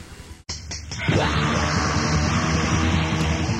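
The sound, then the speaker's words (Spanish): Raw, lo-fi black metal from a 1992 first demo, without keyboards, bursts in after a brief gap: a dense wall of distorted guitar and drums with harsh screamed vocals, loud and sustained throughout. “Sí, un demo bastante crudo en el que abandonaron por un rato el sonido de teclados y la cosa más misteriosa, tenebrosa”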